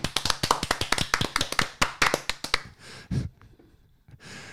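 A small burst of hand clapping from a few people for the volleyball club Tartu Bigbank, quick uneven claps for about two and a half seconds, followed by breathy sighs and quiet rustling.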